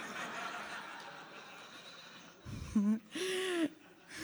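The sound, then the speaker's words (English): Amid a murmuring, laughing audience at a talk, someone in the audience lets out a loud, squeaky, warbling dolphin-like squeal, a short chirp followed by a longer sustained cry. “Someone made a dolphin sound.”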